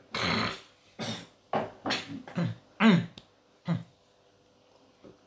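A series of short, harsh coughs and throat-clearing bursts, about six or seven in quick succession over a few seconds, moderately loud, with brief pauses between them.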